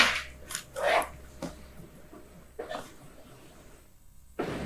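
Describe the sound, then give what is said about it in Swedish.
A voice imitates a rattling, wheezy death sigh: a few short, raspy bursts of breath separated by quiet pauses, with no words spoken. “Ja, men dödssucken. Så lät den. Mm. Så här rossligt.”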